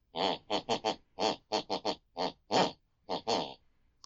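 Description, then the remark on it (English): A woman snores in her sleep, loud snorting snores in a quick rhythmic series of about a dozen bursts, grouped like the phrases of a tune, with brief pauses between groups and no talking. “Whatever my mother listens to before she goes to bed picks and pulls on her unconscious mind, and that's the very tune she snores.”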